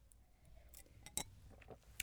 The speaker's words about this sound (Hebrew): אז עשית לי חשק ל... ללחיים. יאללה, נעשה לחיים. איזה לחיים קטן.